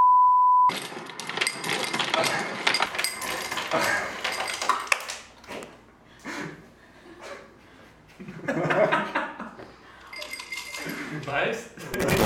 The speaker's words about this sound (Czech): Lednička s ledem, velmi důležitá, když v létě pracuješ, tak bez ledu to prostě nejde. Že se dá vlastně natankovat jako led